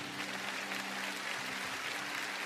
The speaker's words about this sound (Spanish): Aplaudan al Señor de señores y Él que habló.